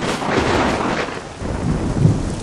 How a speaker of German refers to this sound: zu donnern und zu blitzen und zu regnen. Und ich sag euch, das war super ungemütlich.